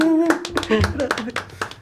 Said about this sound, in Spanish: Muy bien, un aplauso, ¿eh?